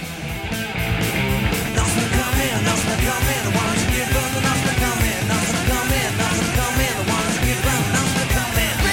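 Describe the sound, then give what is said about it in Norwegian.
A fast, loud late-1970s punk band song plays: distorted guitars and pounding drums fill the sound densely while a vocalist shouts 'Norsemen are coming' over them very fast, at a relentless, steady pace. “Det er ja, det, er, det er lyden av sånn ja, punkband på slutten av 70-tallet.”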